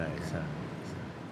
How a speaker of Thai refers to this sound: ต้องขออภัยสำหรับเสียงแอร์ที่เข้าไปรบกวนการบันทึกในครั้งนี้นะครับ